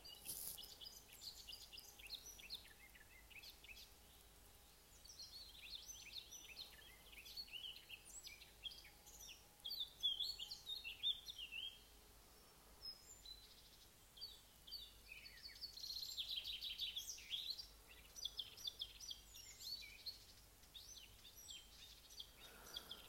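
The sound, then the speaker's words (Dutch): Birds sing and chirp steadily throughout, a busy chorus of high, quick calls overlapping over a soft outdoor hush, with no one talking. “Die vogels zijn zo maar aan het fluiten.”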